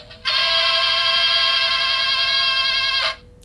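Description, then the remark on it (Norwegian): A short jingle for the radio segment Dagens ord: a single loud, buzzy electronic tone held at one steady pitch for about three seconds, then cutting off abruptly, with no voices. “Men vi spiller jingle.”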